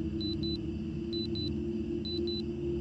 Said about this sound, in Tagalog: Umiilaw din kasi ito kaya nang tumunog ay agad kong tiningnan. Nagtataka kasi ako dahil bigla na lang tumunog kahit hindi ko nilagyan ng alarm. Nang tingnan ko, alas tres na pala ng madaling araw.